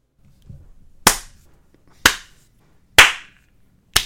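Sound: hand clap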